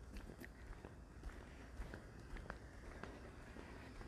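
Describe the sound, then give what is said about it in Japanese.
Setta sandals worn over socks flap and slap against the ground in a steady walking rhythm outdoors, about two steps per second, fairly soft, with no voices over them. “このサンダル今日もね例のごとくサンダルに靴下を履いてえ靴下を履いてサンダルを履いて出てきてますんで今日もパタパタと音が入ってるかもしれませんが、まあ、何やらこの音が、えいいぞっていうね 方がいらっしゃって、”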